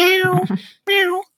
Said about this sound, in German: Ähm, meine Katze, falls es, falls es hier gerade Geräusche gibt, das ist meine Katze, Entschuldigung.